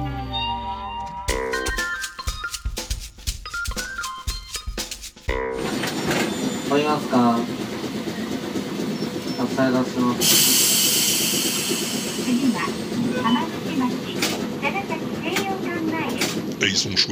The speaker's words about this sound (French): les tramways de Nagasaki, hein, Pompidou Oui, il y en a tous les modèles, toutes les époques.